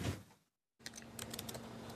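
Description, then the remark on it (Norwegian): Rapid keystrokes clatter on a computer keyboard as a message is posted to Martin Schulz's Twitter account during the EU election campaign, fairly loud, after a brief silent gap. The clicks come in a quick, irregular stream over a low steady hum. “Fingrene beveger seg raskt over tastaturet.”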